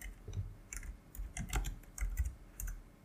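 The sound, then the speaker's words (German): Rapid clicking and typing on a computer keyboard as someone searches for an actor's name, an irregular run of key taps with short pauses, heard on its own without any talking. “Klicke die, klicke die, klicke die, klicke die, klick.”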